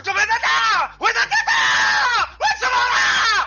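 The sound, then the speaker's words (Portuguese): A voice imitates a dramatic anime character screaming, three long strained cries with brief breaks between them, loud, rising and wavering in pitch. “É tipo, o cara tá gritando, parece que ele vai morrer a qualquer segundo.”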